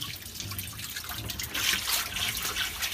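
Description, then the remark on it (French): Water steadily leaks and drips from a fitting on a boat, a continuous trickle with small irregular splashes that grows a little louder midway, with no voices. “Le bateau prend l'eau.”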